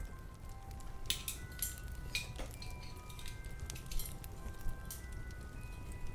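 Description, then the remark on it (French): Metal cutlery clinks and rattles in scattered bursts as drawers open and the cutlery moves to the dining table, a few sharp chimes ringing briefly over a low, steady rumble, moderately loud, with no voices. “Les tiroirs s'ouvrent comme par magie et les couverts se dirigent seuls vers la table à manger.”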